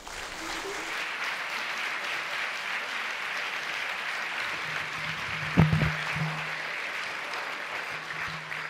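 Steady, sustained applause from an audience welcoming Monsieur Poulpe at a ghost-story evening (la veillée) fills the whole stretch, a dense wash of clapping with a brief louder burst partway through and some faint voices underneath.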